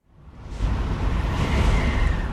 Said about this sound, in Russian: В это время сильный порыв ветра пронесся по лесу. Вершины старых сосен зашумели, и в шуме Сильвестр и Сильвия ясно расслышали слова.